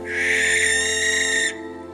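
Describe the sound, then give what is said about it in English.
A barn owl gives one long, harsh, hissing screech lasting about a second and a half, then cuts off, leaving a low steady hum underneath. “Long feared as a harbinger of death in Ireland, we now see the barn owl in a very different way.”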